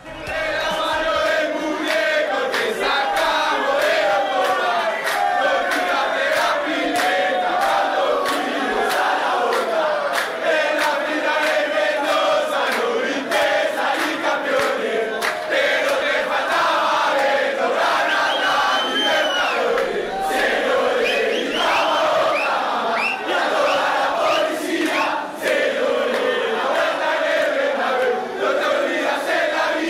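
A huge crowd of River Plate football supporters chants and sings together in unison, a loud, continuous wall of voices with a rhythmic, melodic pulse that holds steady for the whole stretch.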